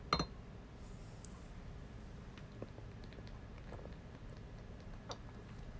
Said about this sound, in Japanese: ビールです瓶なんであ開かないあおカンカンカンっつってガタンガタンつってねそれじゃあ乾杯。